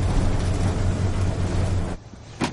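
Heavy military vehicles rumble past with a loud, steady engine drone and deep low hum for about two seconds, then the noise drops off abruptly before a short final burst.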